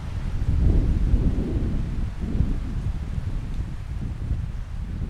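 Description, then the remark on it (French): Strong mistral wind blasts straight into a microphone held out toward it, a loud, continuous low rumble with gusty buffeting that swells and eases over several seconds. No one speaks. “Donc là, Rudy Ricciotti tient son micro tendu vers le vent.”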